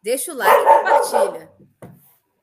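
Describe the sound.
A dog barks, short sharp yaps, partly under a person talking, with one final brief bark after the voice trails off.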